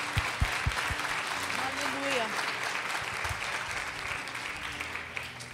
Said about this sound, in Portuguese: Aplauda o Senhor.